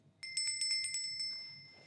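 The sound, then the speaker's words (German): A small bell is struck in a quick series of about seven rapid rings, its bright metallic tone then lingering and fading. Clear, with no talking. “Und obwohl die Hunde vor der Testphase keinerlei Reaktion bei diesem Klingeln zeigten, reagierten sie nach dem Zeitraum jedes Mal mit erhöhtem Speichelfluss, wenn sie die Glocke hörten,”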